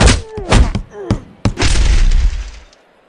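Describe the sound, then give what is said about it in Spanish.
A geologist's hammer strikes hard several times, each blow a sharp crack, then a heavy smash followed by a loud crunching, shattering rumble. Brief voiced cries break in between the hits. “mire, ve este martillo de geólogo que tengo aquí.”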